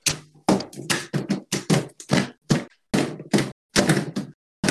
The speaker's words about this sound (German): Achso, ich dachte, yeah, das war, das war, das war mein Katzenklo, das ich gerade für Beats benutzt habe.